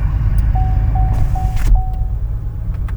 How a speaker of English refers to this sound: Oh, we got a train. Just a second.